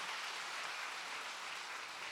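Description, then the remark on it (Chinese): A church audience claps steadily to welcome a parent-child dance troupe, a dense, continuous patter of many hands at an even, moderate loudness throughout, with no voices. “继续的拍手哈，继续的拍手。”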